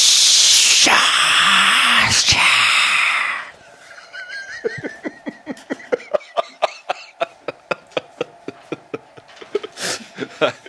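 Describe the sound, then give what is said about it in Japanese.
A voice imitates a snake, speaking the snake language from Harry Potter: a loud, breathy hiss lasting a few seconds, followed by a quick run of sharp clicking and tongue-flicking sounds. “あれあのヘビ語が喋れる、えー「ハリー・ポッター」どう思われます”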